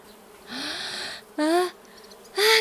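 Three loud bursts of bee buzzing, each a rising, droning whir, the first longest and the last short and sharp, with brief pauses between them.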